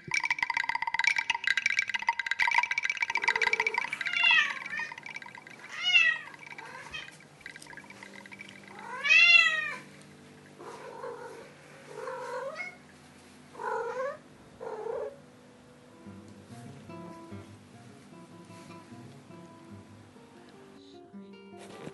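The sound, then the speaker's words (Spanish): A series of cats meowing, roughly seven clear, rising-and-falling meows spaced a second or two apart, fairly loud, after an opening stretch of steady hissing noise. “No sé si me gustan los gatos.”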